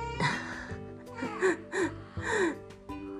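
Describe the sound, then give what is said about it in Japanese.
An infant whimpers and fusses in several short, rising cries with breathy gasps between them, fairly soft, with no one talking. “ちょっと泣いてるかな”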